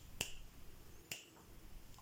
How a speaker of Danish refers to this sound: Komplekse tiks, det betyder, at der er flere muskelgrupper involveret. Det kan være for eksempel at, at dreje hånden og knips,